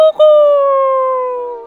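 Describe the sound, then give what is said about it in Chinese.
A rooster crows once, loud and alone: a brief opening note breaks into one long, ringing cry that holds steady and slowly slides lower in pitch before fading. “咕咕，是公鸡响亮的叫声，该起床喽。”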